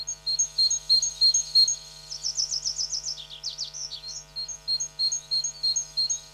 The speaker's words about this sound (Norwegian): Det du hørte der, det var en eh, kjøttmeis.